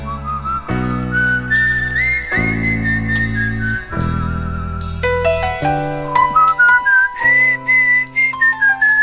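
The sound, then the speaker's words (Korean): A person whistles a slow, wistful melody in a clear, steady tone, with long held notes gliding between pitches, over a soft bed of sustained low chords. “이 휘파람 소리는 참 어떻게 보면 고독해요.”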